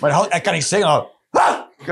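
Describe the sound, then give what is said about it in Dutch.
A man talks briefly, then gives a short, loud, voiced bark in imitation of a dog, followed by a quick start of more speech. “is het eerste wat een hond kan zeggen. Dat is de communicatie van een hond.”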